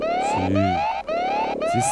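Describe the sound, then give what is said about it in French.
A loud alarm siren repeatedly sweeps upward in pitch, each rising whoop lasting about half a second, with a low droning tone sounding beneath some cycles. No one speaks. “j'ai l'alarme.”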